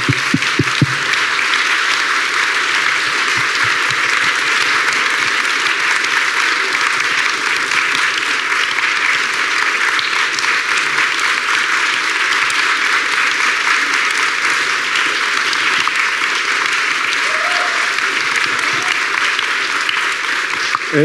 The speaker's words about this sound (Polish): Natomiast jest tutaj z nami Maja Ostaszewska i ja mam taką prośbę, żeby takie podwójne brawa i dla Agnieszki, i dla Majca, za to, co zrobiły.